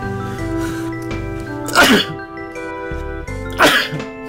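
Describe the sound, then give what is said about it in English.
Two sharp, breathy sneezes burst out about two seconds apart, loud, over steady background music with sustained tones and a soft beat. “Bless you.”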